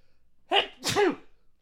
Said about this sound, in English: I have to sneeze. Give me a sec.